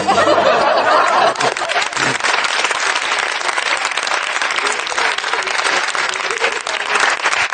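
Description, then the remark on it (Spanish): A jury at a trial bursts into steady applause, dense clapping that stays loud throughout, with a bit of laughter mixed in near the start. “El jurado aplaudiendo.”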